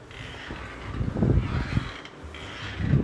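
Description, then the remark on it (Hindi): The small wooden door of a small shrine in a home creaks open, a drawn-out, grinding creak that peaks around the middle and swells again at the end. It is fairly quiet, with no one talking. “हमारे घर पे ना एक छोटा सा मंदिर बना हुआ है ठीक है तो उसका दरवाज़ा खुल लेगी क्रिंग ऐसे करके आवाज़ आई अरे मैं तुम्हें खोल के दिखा देता हूँ मैं घर पर ही तो हूँ रुको रुको मैं तुम्हें खोल के दिखाता हूँ”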